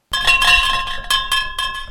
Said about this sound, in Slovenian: Takšno kakofonijo pa so med zapiranjem vsakeč znova odigrala vrata hladilnika.